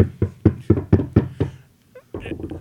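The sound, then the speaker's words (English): A quick run of about six sharp knocks on wood, evenly spaced, followed by a brief pause and some faint shuffling noise. “knock on wood, we get this episode out.”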